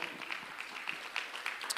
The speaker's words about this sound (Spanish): Usted le da palmas fuerte al Señor.